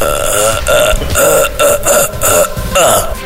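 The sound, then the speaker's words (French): A voice imitates a scream of pain: loud, raspy, strained cries broken into several rapid pulsing bursts over about three seconds, with no other talk. “voilà, en exclu, ça c'était le cri de douleur qu'on entend au tout début du premier épisode.”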